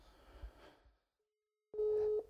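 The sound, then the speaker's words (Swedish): A single loud, steady telephone tone sounds over a line, following a quiet pause after some faint background rumble, the kind of beep heard before a voicemail greeting, on a phone call to a woman who does not answer. “jag testar ju att ringa henne en ja, gång i veckan. Det, jag men jag får bara telefonsvar”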